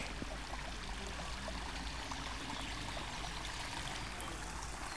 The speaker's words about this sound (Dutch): het geluid wat het meest opvalt, dat is dat van eh, water dat over een trap naar beneden komt. Een heerlijk rustgevend geluid.